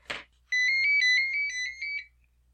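A telephone ringtone plays a bright, warbling electronic melody for about a second and a half, clear, preceded by a brief soft rustle, with no one talking.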